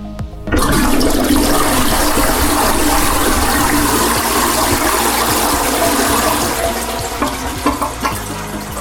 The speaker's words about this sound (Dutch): Nou, waar luisteren we naar? Eh, wc, dat lijkt me toch logisch?